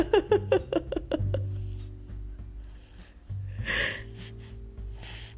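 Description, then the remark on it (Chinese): The speaker's baby boy, who fell asleep partway through drinking milk, makes a quick run of six or seven short, voiced grunting gasps, then goes quiet over a low steady hum before one breathy gasp near the end. “对，大家之后在广播里面听到的这个喘息声、娇嗔声、呻吟声、各种声音哈，都不是我的，都是我们家弟弟的。”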